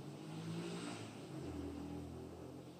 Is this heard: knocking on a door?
no